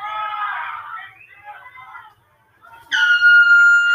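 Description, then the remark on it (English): A loud, sustained air horn blast, blown by the Posse at a wrestling match, suddenly cuts in during the last second, after a stretch of indistinct voices and a brief lull. “The posse, the posse have an air horn that just distracted Brad, crotched him on the top rope.”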